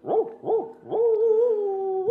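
A dog in the distance gives two quick barks and then breaks into a long, drawn-out howl, heard on its own with no voices, while fog hangs in the air.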